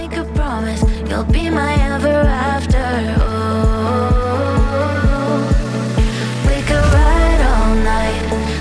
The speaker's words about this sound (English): we dedicate this beautiful song to you.